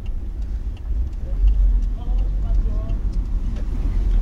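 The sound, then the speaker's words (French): Steady low engine rumble and muffled road noise, as if heard from inside a moving car in heavy traffic, with faint indistinct voices in the background throughout. “il y a trop de trafic mais par où tu veux que j'aille”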